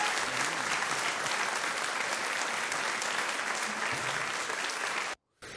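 A crowd applauds steadily, dense clapping holding at an even loudness for about five seconds before cutting off abruptly into a brief silence, then resuming.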